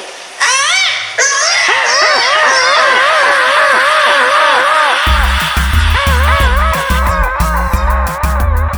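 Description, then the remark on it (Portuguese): Loud, high-pitched screams from several voices overlap in a sustained wavering shriek, intense; partway through, a thumping electronic beat cuts in underneath as the shouting continues. The scream is a greeting call used among people from Belém to identify, locate and call one another. “Gatos miam, cachorros latem, demônias belenenses e ero gritam.”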